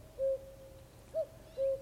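A common cuckoo calls with soft, hollow, low-pitched hoots: one steady note, a shorter slightly higher one, then another steady note, alone against a quiet background.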